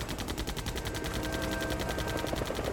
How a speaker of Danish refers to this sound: så bliver der lige pludselig åbent ild op for vores helikopter. Der sidder en, en med en maskingevær nede bag i.